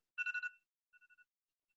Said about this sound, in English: Sorry, I set a little alarm to make sure I don't run too long